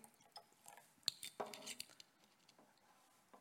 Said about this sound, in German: Und ich ähm, fange schon mal an, hier so ein bisschen mal was einzugießen.